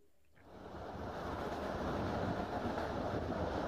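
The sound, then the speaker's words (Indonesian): A steady, broad rumbling roar swells in within the first half second and holds, an economy-class train carriage rolling along its rails, heard from inside, on a train travelling from west to east. The roar is loud and continuous, with no voices. “Aku duduk di bangku paling belakang, sebelah kiri gerbong ekonomi. Di kereta yang membawaku dari arah barat ke timur sebuah perjalanan yang berulang, namun selalu saja memiliki kesan yang tersendiri.”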